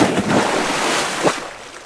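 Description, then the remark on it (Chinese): A heavy stone about a foot square, thrown by hand into the water where people are fishing, plunges in, giving a splashy burst at the start and another sharp surge about a second later, over a steady rush of churning water. No one speaks. “他眼睛四下搜寻，找着一大块一尺见方的石头，吃力地抱起来，双手往上一举，哎，大石头直飞向水里，咕咚一声”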